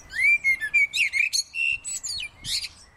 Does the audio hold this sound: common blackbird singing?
yes